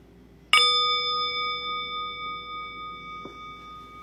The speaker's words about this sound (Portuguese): E daqui a pouco eu vou convidar o sino a soar para a gente encerrar o período formal da prática meditativa compartilhada. Mas não precisa se mexer rapidinho, não. Procura manter a quietude mesmo ouvindo o sino.